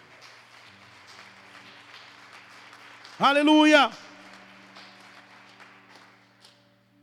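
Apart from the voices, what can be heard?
audience applauding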